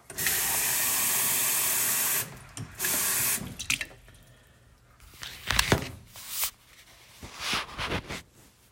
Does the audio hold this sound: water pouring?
yes